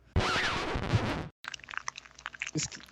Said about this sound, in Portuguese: Nossa, cara, Quem que tá mastigando muito. o microfone? Sou, sou, eu, desculpa. Fui eu.